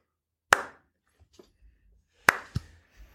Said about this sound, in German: Slow Clap. Bisschen Begeisterung bitte.